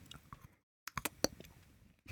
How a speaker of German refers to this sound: Die sind super. Mhm. Die sind ein bisschen wie Snickers. Aber nicht so ins Mikro schmatzen live.